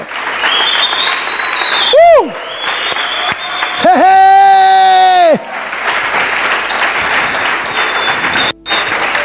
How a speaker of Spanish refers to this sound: Yo que usted aplaudiera, por favor.